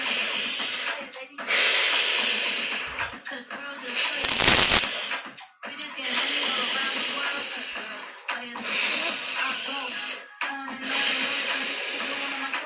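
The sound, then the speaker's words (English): A person doing an open-mouth breathing exercise, loud: a series of strong, noisy breaths drawn in as fully as possible and blown out as strongly as possible in a steady rhythm, several of the exhales especially harsh and hissing. “Almost like a vacuum cleaner and by you breathing as much air as you possibly can and blowing it out as strongly as you can, you are moving any stored feelings through you.”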